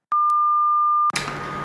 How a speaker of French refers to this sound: Bonjour, vous êtes bien sur le répondeur du Opération Bikini Vous pourrez enregistrer votre message juste après le bip sonore.